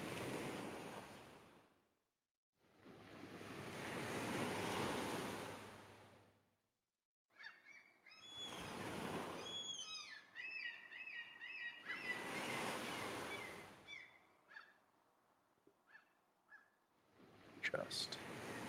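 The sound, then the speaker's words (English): Ocean surf rolls in and out in repeated broad washes of noise, each wave swelling and fading, with chirping seabirds calling between the breakers. “Um, let me let me go ahead and set some sounds here to get us a kind of a feel for where we're at. Oh, waves.”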